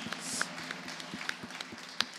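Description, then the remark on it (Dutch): A few audience members at a political pitch event in Dongen clap lightly and unevenly, the scattered, hesitant claps sparse and soft, never building into full applause. “Ja, voorzichtig applausje mag, mag, mag.”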